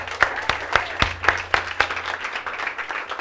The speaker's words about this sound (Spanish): Y ustedes dicen, sí, es un aplauso.